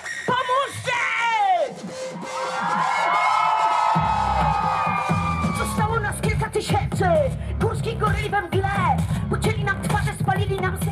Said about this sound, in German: Nicht-binäre Menschen machen Lärm. Die Gleichstellungsparade macht Lärm. Juni 2021. Gay Pride Parade, Warschau. Höllisch heiß. Mitten in der Regenbogenmenge.